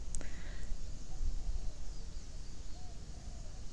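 A steady, thin cricket drone hums over open outdoor ambience in the middle of a rice field, with a sharp bird chirp near the start and a few faint bird calls later. Low background rumble runs throughout.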